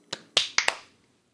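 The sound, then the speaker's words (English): Four sharp, crisp hand claps made to sync audio after a three-two-one countdown, in quick, uneven succession, the first softer and the next three louder, each a bright snapping burst that dies away fast, with no voices. “Then counting down for that clap sync in three, two, one.”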